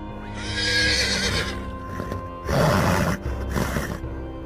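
A horse, named Demon Spawn, whinnies loudly, a shrill, wavering neigh, followed by snorting and a brief run of hoofbeats clopping, with no one speaking.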